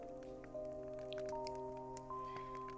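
Sparse, irregular pops and snaps of a crackling bonfire, soft, sitting over a steady sustained tonal hum in the background, with no voices.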